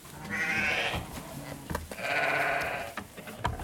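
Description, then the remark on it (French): Sheep bleat loudly, two long wavering calls from a flock of ewes kept together with donkeys as a trial of flock protection, with fainter bleats and shuffling between them and no talking. “C'est un essai de cohabitation entre les ânes et le troupeau puisque notre repreneur, euh, il avait des ânes et il veut essayer de les mettre, euh, de faire aussi de la protection de troupeau avec.”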